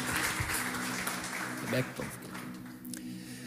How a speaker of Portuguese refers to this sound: Amém. Vamos aplaudir Jesus.